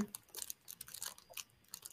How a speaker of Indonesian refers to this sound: Itu apa ini? Plastik, gue lagi iseng mainin plastik. Itu plastik? Iya, iya.